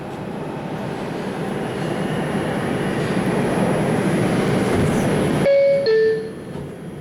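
A New York subway train roars and rattles steadily for several seconds, then cuts off as a bright two-note chime sounds over the subway intercom, followed by a quieter hum.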